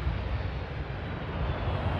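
A steady, loud roar of a Royal Air Force military airplane's engines, a broad continuous rumble with deep low-end weight and no voices, holding evenly as the aircraft lands carrying the coffin of Queen Elizabeth II.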